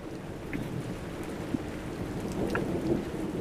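Steady rain patters and hisses throughout while a low, rolling rumble of thunder sits underneath; a thunderstorm playing at a fairly soft, even level with no voices.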